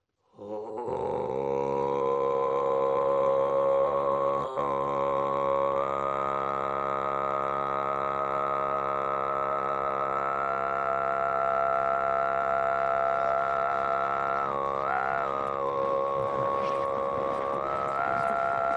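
A single deep, sustained traditional Tuvan throat-sung drone, produced by pressing air up from the belly, with strong buzzing overtones and a whistling harmonic melody gliding above it, steady and loud for nearly twenty seconds with no talking.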